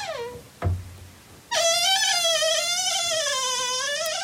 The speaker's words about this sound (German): Ja, und je älter die Türen, desto musikalischer. Das war eine 120 Jahre alte Tür in einer ebenso alten Wohnung.